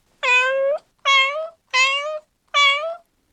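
A domestic cat meows four times in a steady rhythm, each call drawn out and clear, fairly loud with short silences between and no other sounds.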